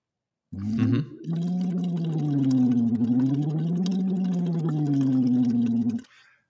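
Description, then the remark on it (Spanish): A voiced lip trill done as a vocal exercise, with lips and cheeks fluttering in a buzzy, bubbly rattle over a steady hummed tone. The pitch slowly rises and dips in gentle waves for about five seconds, with no talking. “haces eh, burbujitas, pero haciendo tono, ¿no?”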